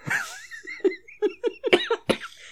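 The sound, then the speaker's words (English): A string of short bursts, breathy laughter that breaks into a few harsh coughs toward the end from a person getting over a cold, each burst sharp and loud with brief gaps between. “I'm getting over a cold. I still have a cough.”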